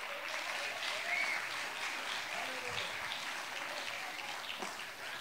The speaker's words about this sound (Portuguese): Pode aplaudir a Jesus.